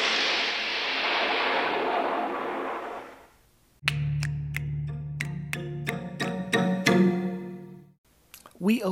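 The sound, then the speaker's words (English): A rushing, windy roar gives way to a steady low engine drone, over which a rapid series of sharp rifle-like cracks rings out, about eight shots in quick irregular succession, rifle shots fired at a sled dog fleeing a Norwegian helicopter across the Antarctic tundra. “open on a sled dog fleeing from a Norwegian helicopter across the Antarctic tundra, dodging rifle shots and dropping grenades.”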